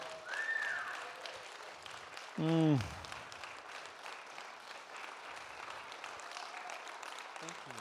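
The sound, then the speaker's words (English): A church audience claps steadily throughout, a dense wash of many hands, with a brief voiced murmur and a short tonal whoop rising above the applause near the start. “So would you guys ex- go ahead and clap?”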